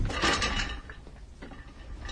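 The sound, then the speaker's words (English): A chair gets kicked: a loud, rattling clatter of wood and metal in the first half-second, followed by a few fainter knocks as it settles, with no voices. “Please don't kick the chairs.”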